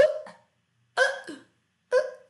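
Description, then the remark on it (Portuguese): A person imitates hiccups with their voice: three sharp, voiced hiccup sounds about a second apart, fairly loud, with silence between each. “Avoir des ok é ficar de soluço, assim, ó.”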